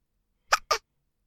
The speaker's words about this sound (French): La grosse citrouille avait le hoquet. À chaque bruit, on la voyait sursauter.